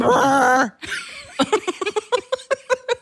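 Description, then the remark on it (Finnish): A voice imitates concrete drilling at a big construction site: a loud, sustained buzzing tone, then a rapid series of about a dozen sharp, evenly spaced vocal bursts that hammer out a steady mid-pitched rhythm. “tavallaan niin kuin betonin poraamisääntä tai semmoista niin kuin mega niin kuin ison Eli työmaan”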